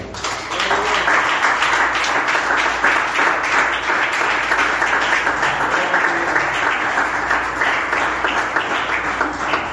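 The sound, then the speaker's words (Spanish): A church audience applauds steadily for about ten seconds after a sermon, a dense, continuous patter of many hands clapping at an even, fairly loud level with no speech over it. “Fuerte el aplauso para ti.”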